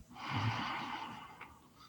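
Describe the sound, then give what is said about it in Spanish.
A deep breath drawn in through the nose during a guided breathing exercise, a single long airy inhale lasting nearly two seconds, fairly quiet, with a soft rush of air and no talking. “Inhalamos profundamente”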